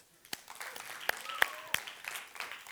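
An audience at Ubetania breaks into applause, many hands clapping in a dense, crackling patter that builds from a few scattered claps to steady, fairly loud clapping, with a couple of sharper claps standing out. The applause is for someone who put pictures up on the wall.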